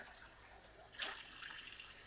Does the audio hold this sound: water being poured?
yes